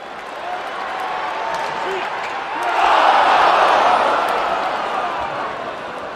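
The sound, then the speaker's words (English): A professional NHL hockey game crowd, recorded with a quad microphone array, roars steadily, swelling into a louder burst of cheering about halfway through before settling back into a dense murmur of many voices, with faint whistles above. “The, funny thing is, your library sounds like a long, slow burn version of my hockey crowd's library.”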